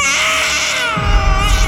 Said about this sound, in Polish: Słychać dochodzący z głębi mieszkania płacz siedmiomiesięcznego synka Ireny